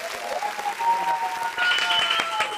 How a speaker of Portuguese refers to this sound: minha gente, uma salva de palmas